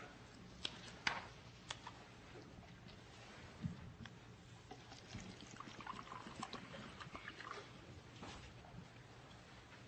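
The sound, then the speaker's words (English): Water pours into a glass, a steady splashing trickle lasting several seconds, with a few sharp clinks near the start and no one speaking. “Let's see if I can manage this without spilling water all over myself.”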